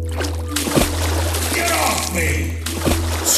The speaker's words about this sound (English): screamed a man's voice just before something plunged back into the water, disappearing before I had time to see it.